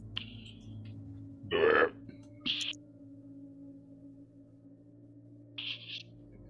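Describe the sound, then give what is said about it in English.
A voice imitates munching with a few short, wet mouth noises, one louder smacking burst and two lighter ones spaced apart, over a low steady hum. “and you hear munching sounds.”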